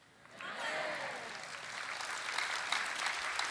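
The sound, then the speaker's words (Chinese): An audience breaks into sustained applause, rising quickly to a steady, dense wash of clapping that holds loud through the end, with a few faint voices mixed in. “要鼓掌，要热情的鼓掌。”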